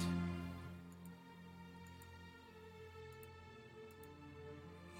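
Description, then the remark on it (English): Faint, regular clock ticks, roughly one per second, sit beneath a steady low humming drone. No one speaks. “you are immediately lost into the sound of that ticking clock.”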